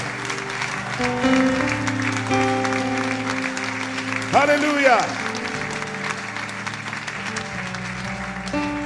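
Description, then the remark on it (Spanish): An audience claps steadily throughout to give thanks to the Lord, a dense wash of applause over sustained keyboard chords, with one voice briefly calling out loudly midway. “Dele gracias con ese aplauso.”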